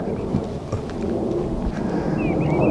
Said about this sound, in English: plane going overhead